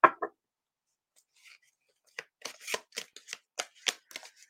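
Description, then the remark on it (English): Tarot cards shuffled by hand for a tarot reading: two quick papery bursts, a short pause, then a run of irregular riffling swishes and soft taps, fairly quiet and with no voice. “My hands are small, so I don't shuffle, shuffle cards like a lot of people do.”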